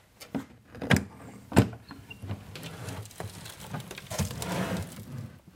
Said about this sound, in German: Das Quietschen allein schon von den Scharnieren, das gehört einfach zu so einem Stück dazu.